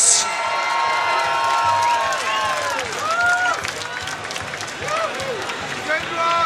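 A huge crowd at the Decibel festival roars and screams without pause, many high voices whooping and shrieking over a dense, loud wall of cheering that swells slightly throughout.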